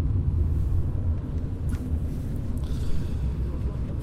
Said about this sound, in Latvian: Mēs braucam ar mašīnu pa Maskavu. Moskava ir tik liela. Domāju, mēs braucam un braucam, un, uh, braucam.